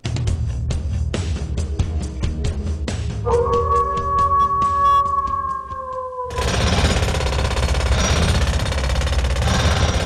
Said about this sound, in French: Je serai le son du marteau-piqueur, parce que j'aime le bruit.